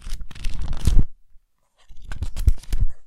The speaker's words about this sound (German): Hier, hör, hört ihr schon das Blättern? Sag mal kurz leise.